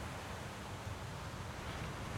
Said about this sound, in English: The tide rolls in again. This time it's higher.